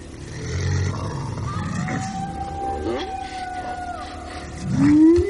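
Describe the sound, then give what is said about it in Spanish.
A long, drawn-out howl carries as steady high tones over a low, rumbling background, ending with a louder rising wail near the close. “El licántropo va en busca del aullido.”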